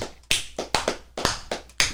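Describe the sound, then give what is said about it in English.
Several sharp hand claps ring out at an uneven pace in a studio, each a crisp smack with a short decay, and no one speaks. “Love that clap.”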